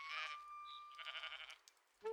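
A goat bleats, a loud, wavering cry that quavers in quick pulses before breaking off, followed by a short grunt at the end, with no talking.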